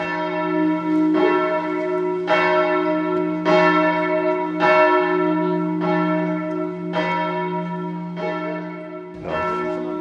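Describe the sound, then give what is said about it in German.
Church bells of the Gethsemane Church at the corner of Stargarder Straße ring out in a steady, repeating peal, each strike blooming with rich overtones over a continuous low hum, loud with no voices present. “Die Glocken schlagen der Gethsemane-Kirche, sagt mir auch noch was aus DDR-Zeiten.”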